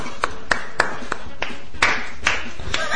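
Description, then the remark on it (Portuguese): An audience claps in unison, about nine sharp, steady claps at an even beat, with a murmur of voices underneath. “Palmas.”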